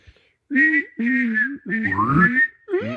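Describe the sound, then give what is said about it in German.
A voice imitates robot beeps by whistling a steady high tone while at the same time humming lower notes underneath, in four short warbling bursts separated by brief pauses, fairly loud. “Das ist Pfeifen und gleichzeitig so, so einen Ton machen.”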